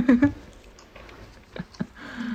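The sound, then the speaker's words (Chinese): Someone chewing lamb skewers, with soft, irregular wet munching and a couple of sharper crunchy bites, after a brief voiced murmur at the start. “我现在我现在嚼这个羊肉串嚼得更加的掷地有声。”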